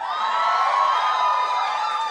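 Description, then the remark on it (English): An audience in Philadelphia cheers and whoops loudly for a couple of seconds, a steady wash of raised voices with possible clapping mixed in, holding an even level throughout. “applaud yourselves?”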